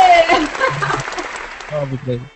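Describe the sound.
A short burst of clapping from a few people for a professional editor, dense, with voices calling out and cheering over it.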